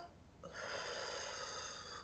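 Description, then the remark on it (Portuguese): A single deep, drawn-out inhale through the mouth, demonstrating a relaxation breathing technique for anxiety attacks, airy and lasting about a second and a half, with no talking. “Por exemplo, uma respiração onde você vai inspirar, aí você inspira, segura um pouquinho”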